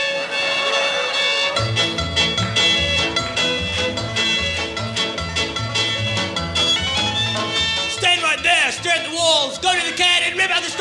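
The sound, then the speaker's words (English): A loud punk square dance song: a driving, steady beat with dense guitars and fiddle-like lines, then a voice joins in toward the end, shouting or singing over the band. “And now, a punk square dance.”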